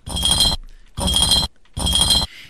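A glass bottle on cement, heard as three loud, half-second bursts of gritty, ringing scraping, evenly spaced with short pauses between them. No one speaks.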